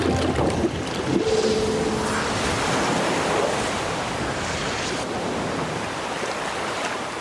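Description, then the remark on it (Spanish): Powerful ocean waves of white foam crash and churn continuously, a dense, roaring wash of foamy surf with wind rushing through it, steady and loud for the whole stretch, with no voices. “Cuando abrió los ojos, estaba en el agua, entre olas poderosas de espuma blanca.”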